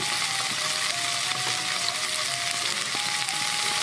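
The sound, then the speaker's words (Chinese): Steak frying in a small tamagoyaki pan while camping, a steady dense sizzle with crackling pops throughout, loud and continuous with no voices. “我们现在正在煎牛排，然后拿很不专业的拿着玉子烧的小锅子。”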